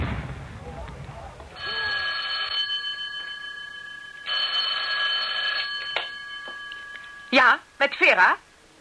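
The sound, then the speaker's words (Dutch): A telephone rings with a call from Obersturmbannführer Eichmann for his wife, in two steady, clear, buzzing bursts separated by a short pause, followed by a brief snatch of someone speaking. “Obersturmbannführer Eichmann voor u aan de telefoon.”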